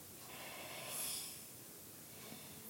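A single deep breath by a patient, drawn in and let out on a doctor's request while the doctor listens to the lungs, with a soft, airy rush that swells and fades, quiet, with no talking.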